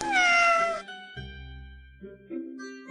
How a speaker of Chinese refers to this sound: 飞机轰隆轰隆，小猫们喵喵的叫着。